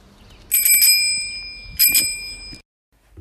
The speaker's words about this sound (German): In diesem Fall, lieber Christian, ist es wirklich eine Fahrradklingel und zwar aus dem Jahre 1950.